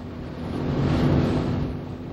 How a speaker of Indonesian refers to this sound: masih sedang mencoba mobil